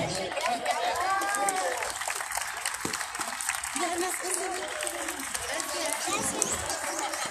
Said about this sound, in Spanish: Un fuerte aplauso al sindicato 20 de noviembre por el bienestar y la protección del trabajador municipal son empleados de diferentes áreas, diferentes dependencias administrativas. Un fuerte aplauso.